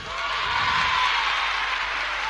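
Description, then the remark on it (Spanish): Sustained applause from an audience for Nuria Espert and her Catalan company from Barcelona, a dense, steady wash of many hands clapping at fairly even loudness throughout, with no voices rising above it. “Yo os pido un aplauso prolongado para Nuria Express y toda su compañía catalana que están poniendo el pabellón de Cataluña a la altura del mundo entero.”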